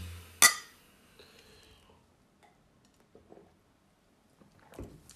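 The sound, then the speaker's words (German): A single bright clink of glasses touching in a toast rings out near the start, then fades into quiet background noise, with a softer knock near the end and no talking. “Prost, auf Frau Köhling.”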